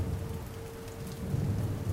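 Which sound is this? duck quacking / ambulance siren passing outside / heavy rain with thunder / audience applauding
heavy rain with thunder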